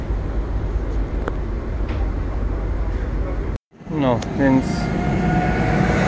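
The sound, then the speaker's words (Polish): A train rumbles steadily as it pulls away from Kraków Zakliki station in Poland, a loud, continuous roar that cuts out abruptly before a man starts talking over lingering background noise. “pociąg sobie odjechał, a ja jestem na miejscu.”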